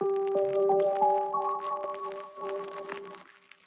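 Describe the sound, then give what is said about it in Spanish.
Vinyl record static crackles and pops in scattered bursts over a steady, sustained musical chord from a rap track, moderately loud, with no voices. “Escuchen la estática del disco.”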